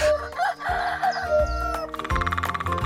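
A rooster crows over a busy musical backing, the call rising and wavering for about a second before the instruments carry on loudly without it.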